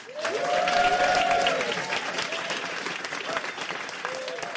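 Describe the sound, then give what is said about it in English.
An audience at a live event at the Cambridge Science Centre applauds a panel steadily, a dense wash of clapping that swells early and holds throughout, with a few voices cheering or calling out over it. “Okay, we have run out of time, and so I have to ask you, please join me in thanking an amazing panel of people”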